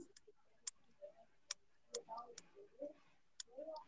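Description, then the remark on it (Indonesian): A single stiff strand of the speaker's own hair, stiff like a broom, is plucked repeatedly, giving about six sharp, dry ticks at irregular intervals, with faint murmuring voices in the background between them. “Sumpah keras banget anjir. Kayak sapu. Iya, kedengeran. Itu lo apain? Gue petik-petik.”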